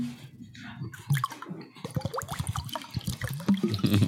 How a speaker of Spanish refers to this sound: Yo lo voy a hacer aquí, pero ustedes pueden hacerlo directamente desde su garrafón de agua y vacíense agua en el vaso.